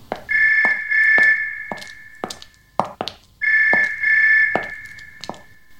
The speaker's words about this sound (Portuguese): Decide apanhar um documento que se encontra na sala. Toca o telefone.